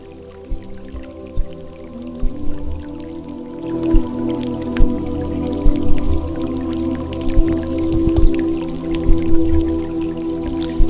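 Calm meditation music played from a CD, soft sustained tones layered with scattered water drips and gentle splashes that recur irregularly throughout, steady and moderately loud, with no voices.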